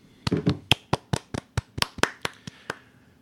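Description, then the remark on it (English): A short round of hand clapping: about a dozen sharp, crisp claps in a loose, slightly uneven rhythm over roughly three seconds, with no voices. “I feel like that deserves an applause.”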